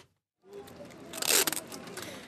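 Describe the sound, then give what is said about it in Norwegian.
Wide adhesive tape being pulled off a roll by a street vendor in Istanbul to fasten corn cobs to his cart, in rainy weather: a crackling, sticky tearing that starts abruptly after a brief silence and swells louder midway before easing off. No one speaks. “bruker bred teip for å feste maiskolber til trallen sin for å vise at han selger varme mais.”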